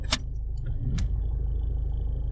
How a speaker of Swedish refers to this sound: det är en bil framför oss här nu som de ska ta lite bilder på.